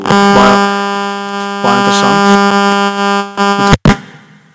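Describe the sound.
A cellphone rings in a pocket: a steady, buzzy electronic tone holding one pitch for nearly four seconds under a man's talking, then cutting off abruptly.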